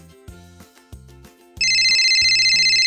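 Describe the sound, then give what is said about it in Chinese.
A loud electronic phone ringtone bursts in over a bouncy low musical tune, its high trilling tones pulsing rapidly and steadily to the end; it is an incoming call to Chief Polly from Mother Pig. “波利警长收到了来电，是猪妈妈。”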